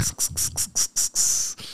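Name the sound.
cicada chirping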